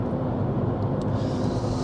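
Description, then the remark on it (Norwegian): A steady, loud engine rumble of a passing car holds at an even level throughout with dense low-end noise and no voices. “Faen, er det bilen min, vel? Det ligner jævlig på bil.”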